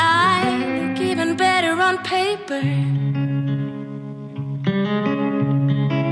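A pop song with guitar, a single released a few weeks earlier by a female artist known for her guitar playing, plays steadily and loud: sustained, effect-laden chords under a wavering melodic line in the opening seconds, then held notes shifting in a slow progression.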